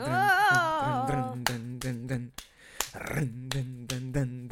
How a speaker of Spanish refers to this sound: Yo no sé cómo es en los aplausos de flamenco.